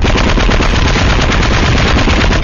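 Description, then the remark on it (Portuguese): A voice imitates a cannon fired by a man on an island, with a loud, sustained burst of rapid rattling blasts that runs unbroken for about two and a half seconds, with no speech around it. “Está aquela ilha, o cara no canhão, né?”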